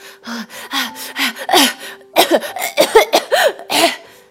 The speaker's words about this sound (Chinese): 不到五秒，他就上来了，大口大口的吸气，止不住的咳嗽声。